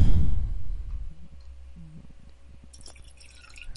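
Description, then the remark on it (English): Kraken rum glugs and trickles into a glass, a soft gurgling pour after a low thump at the start, ending with a few faint clicks and clinks. “pour some more a... Kraken over there.”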